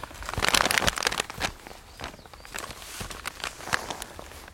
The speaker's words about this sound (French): j'ai déplié la, carte.